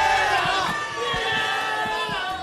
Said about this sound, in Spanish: y ya el público en plato empieza a gritar todo.